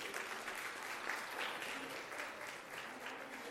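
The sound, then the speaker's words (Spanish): Steady applause from an audience for three people, a dense crackle of many hands clapping at an even level throughout, with a faint murmur of voices mixed in. “Un aplauso para los tres, por favor.”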